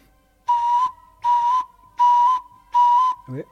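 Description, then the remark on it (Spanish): A person whistles four even, sustained notes around the same steady pitch, each about a third of a second long with short gaps, imitating the call a small dove makes when it rains; a brief voiced sound follows at the end. “Después la otra más chiquitita, por ejemplo, nosotros, cuando llueve, y hace esto la palomita.”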